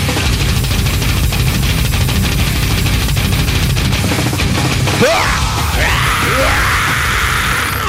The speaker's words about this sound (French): arrête de crier de même dans nos oreilles.